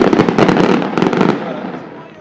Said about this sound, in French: Et vers 9h30, c'est un ah collectif et un délire lorsque le château d'Heidelberg s'empourpre. Puis c'est le feu d'artifice.